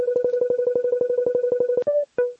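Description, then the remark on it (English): A barcode scanner app, held about four to six inches from a bottle, emits a fast, steady train of short, loud electronic beeps as it starts to detect a barcode, then shifts to a couple of brief different tones near the end. “Those beeps let me know that it's starting to see something that looks like a barcode, so maybe I need to turn it a little bit more.”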